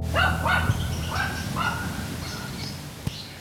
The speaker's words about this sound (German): Man hört das nur ganz schlecht. Der Hund bellt auf der einen Seite des Tals und der schallt aus der anderen Dorfhälfte von auf der anderen Lahnseite zurück. Er bellt quasi mit sich selbst. Der bellt wirklich mit sich selber. So ein dummes Vieh.